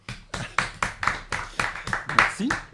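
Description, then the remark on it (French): Audience applause after a poetry reading: steady, evenly spaced claps, about four per second, fairly loud and sustained through the whole stretch, with a brief vocal sound mixed in near the end. “On peut l'applaudir.”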